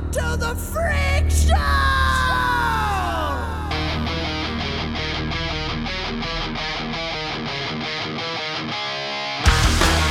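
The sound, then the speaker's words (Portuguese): A heavy metal song opens with a loud, raw scream of "Welcome to the Freak Show" that bends and slides, then gives way to pounding drums and chugging distorted guitars driving a fast, steady rhythm. “Começo bacana, com o vocal gritando Welcome to the Freak Show, achei massa.”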